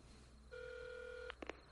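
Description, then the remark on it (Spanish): A telephone being dialed downstairs by the character Walt as he makes a call: one long, steady two-tone beep, then a few quick clicks of buttons being pressed. It is fairly quiet, with no voices. “Abajo, llama por teléfono.”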